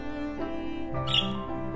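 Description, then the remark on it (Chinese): A small striped baby bird chirps in a quick run of squeaky, high-pitched calls that shift in pitch, with a brighter, sharper chirp near the middle. No one speaks over it. “小鸟叽叽地叫着。”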